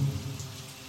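Steady rain falls in a continuous, even hiss with a soft low rumble underneath; no voices, just the dense wash of rainfall throughout.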